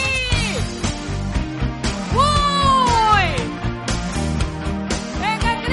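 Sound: song being played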